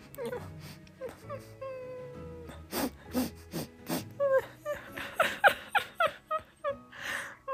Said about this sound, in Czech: Až náhle uslyšeli někoho potichu plakat.